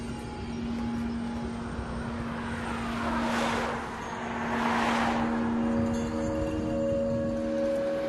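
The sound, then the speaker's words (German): A loud, steady airplane engine drone with a constant low hum and whine, swelling into a passing roar midway before settling back, from a small plane rolling in at Munich. No voices are heard. “Im Flugzeug womöglich die Schlüsselfigur des Mordes an seinem Vater.”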